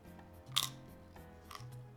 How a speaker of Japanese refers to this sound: YouTube とかでひたすらこう、咀嚼音とか あのあるあるあるでしょあるあるこのうんうんうんこのこの音ねこの音この音こういうのを聞きたい人がおるんですよ